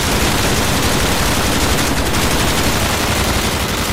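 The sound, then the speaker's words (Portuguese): Sustained, rapid gunfire crackles without pause, a loud, dense stream of overlapping shots like automatic weapons firing together as men open fire on a creature, with no voices. “Os homens que miravam Idaio se viraram apavorados, abrindo fogo contra a criatura.”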